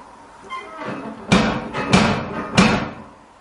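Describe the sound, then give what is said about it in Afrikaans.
Three firm, evenly spaced knocks on a finely crafted wooden front door with a large brass handle and no bell ring out, preceded by a couple of softer taps, with quiet background between the blows and no talking. “Oh, kyk net hierdie voordeur. Die houtwerk is voortreffelik. Is daar nie 'n klokkie of 'n ding nie? Uh, net daai groot braashendel.”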